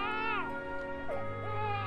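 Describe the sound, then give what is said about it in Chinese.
An infant in a basket on snowy steps cries in a steady, high-pitched wail with rich harmonics, the pitch swooping down and wavering in short rises and falls over about two seconds, with no talking. “石狮子焦急万分，篮子里的小宝宝在哭泣。”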